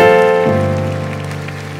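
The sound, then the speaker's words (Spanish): A church audience claps steadily in a dense, continuous patter, giving a loud applause to God, mixed under sustained keyboard chords that shift to a lower pitch partway through. No one speaks. “Sí, dale un fuerte aplauso a Él.”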